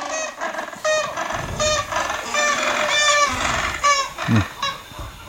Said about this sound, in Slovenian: No, to je tako značilno smešno oglašanje. Drugač ti pingvini živijo na Falklandskih otokih in tam tistih um, vodah in otočjih južno od Južne Amerike